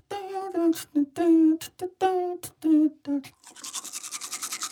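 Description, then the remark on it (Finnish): A voice sings or vocalizes in short bursts, then gives way to a rapid, rhythmic scrubbing of a toothbrush as someone brushes their teeth before breakfast, steady bristly strokes. “harjaa jo hampaitaan.”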